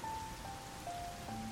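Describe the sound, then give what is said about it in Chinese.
Soft, steady rain falling with a continuous even hiss, joined by a few faint, thin sustained tones. No one speaks. “我是被雨声惊醒的。”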